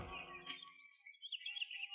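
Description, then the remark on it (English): Soft forest ambience filled with high, overlapping bird chirps and tweets, a steady twittering that swells and fades over a low, quiet background hum. “You stop to listen for the sound of dogs, but all you hear is the sleepy buzz of the forest.”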